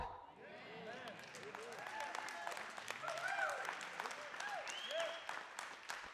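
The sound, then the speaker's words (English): An audience applauds steadily for several seconds during a sermon, a dense crackle of many hands clapping at once, with scattered voices calling and chattering beneath the clapping throughout. “The problem is, I thought that might be the first time in my life that my wife might stand during one of my sermons and applaud.”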